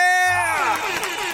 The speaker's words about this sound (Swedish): Vi kör en applåd och en tuta på det!